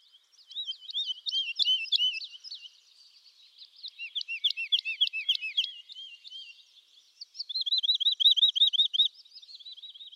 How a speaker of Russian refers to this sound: Я не понял, кто это поет, но я понял, что я не слышал этот голос раньше, а так как я хорошо знаю голоса местных птиц, то я сразу решил, хм-хм, наверное, у меня будет лайфер.